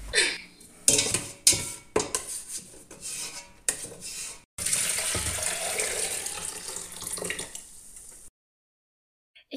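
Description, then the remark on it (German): Water runs and splashes in a sink while it is washed out of stuck-on bear remains and turmeric, starting with several choppy bursts of scrubbing and rinsing, then a steady, fairly loud stream from the tap before it stops abruptly into silence. “glaube aber ehrlich gesagt, das einzig Schlechte daran war, dass ich mir beim Auswaschen ein bisschen schwerer getan habe, die ganzen Bärenreste zu beseitigen.”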